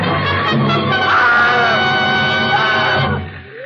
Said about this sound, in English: And then she threw up her hands and shrieked.